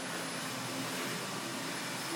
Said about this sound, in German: Ich bin am Putzen. Das ist das Geräusch, was ich hier höre? Ein Staubsauger.